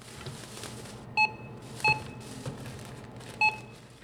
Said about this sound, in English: If you work at a grocery store, it's the pinging of the cash register.